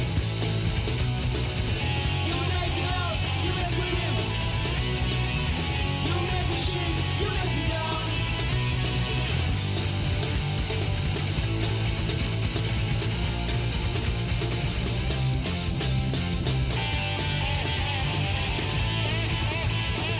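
A French garage punk rock song from 1998 plays loud and steady throughout, with dense, distorted guitars, driving drums and shouted vocals filling the whole mix without a break.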